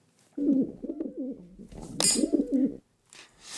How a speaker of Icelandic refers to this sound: Nei. dúfur. Dúfur, hárétt sem vakka um á torginu, dúfurnar voru það vel gert.